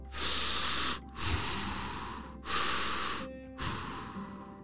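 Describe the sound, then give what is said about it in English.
A voice imitates an elephant breathing through its trunk: two pairs of loud, hissing inhales and exhales in a steady rhythm, airy, with no talking. “was breathing through her trunk. And that gave Connor an idea”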